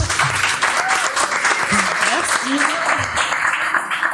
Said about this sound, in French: je vous demande, s'il vous plaît, une pluie d'applaudissements